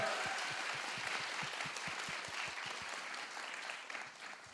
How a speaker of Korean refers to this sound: 모든 회사 대박 나시라고 응원의 박수 감사의 박수 와우! 와우! 야!